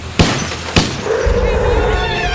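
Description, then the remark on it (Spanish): Two sharp, loud cracks a half-second apart, two shots from a revolver with a silencer fired inside a route 30 neighbourhood bus. Then comes a sustained, gritty spray of noise as the bus window glass shatters and breaks apart, with a faint high ringing running through it. “La ventana estalló en mil pedazos.”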